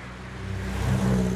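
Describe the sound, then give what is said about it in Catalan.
A car engine hums and swells as a vehicle approaches, growing steadily louder over steady traffic noise in a huge open square, Plaça Espanya, with no voices. “L'he intentat creuar i per poc m'atropellen no un, sinó dos o tres o quatre cotxes.”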